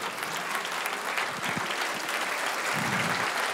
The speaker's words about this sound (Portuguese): Fique em pé e aplauda o Senhor. Fique em pé e aplauda o Senhor.